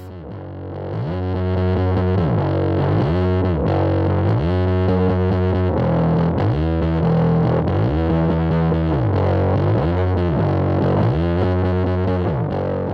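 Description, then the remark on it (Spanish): A heavily distorted bass plays a solo alone, sliding up and down in pitch in repeated sweeping phrases through a Big Muff distortion effect, thick and fuzzy with a loud, sustained tone and no voices. “Eh, yo ahí lo que hago es, es un slide, simplemente un slide, pero con un efecto que yo tengo que se llama Big Muff.”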